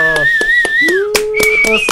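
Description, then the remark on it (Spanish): Steady, evenly spaced clapping runs throughout while loud, sustained whistles ring out on top, one long high whistle sliding down, then another held tone, like a small cheering crowd. “Eh, un aplauso.”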